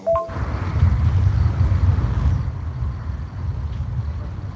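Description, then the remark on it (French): A salvo from Grad truck-mounted rocket launchers in Kharkiv, Ukraine, firing at Russian positions, rolls in as a continuous, deep rumbling roar that swells and then eases off slightly, with no voices present. “ce sont des tirs d'artillerie que l'on entend donc depuis Kharkiv qui visent les positions russes”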